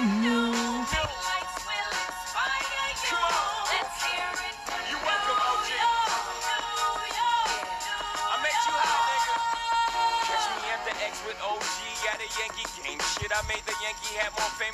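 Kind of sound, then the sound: hip-hop song playing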